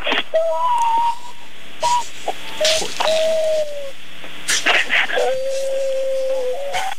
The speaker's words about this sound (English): he doesn't usually cry. Uh, I'm telling you, softest heart in the world.